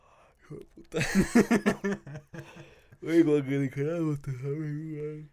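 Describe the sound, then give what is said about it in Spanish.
One person lets out a long, exaggerated yawn, deliberately performed to make the listener yawn: a breathy, noisy inhale followed by a drawn-out voiced groan that wavers and slowly trails off. “Sí, también estoy haciendo esto para que tú bosteces, perro.”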